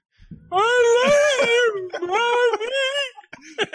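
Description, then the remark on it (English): A voice loudly imitates a crying wail, a wavering, quivering moan in two long drawn-out bursts with a brief break between them, ending in a short sob-like catch. “Cry like a fucking yeah, asshole.”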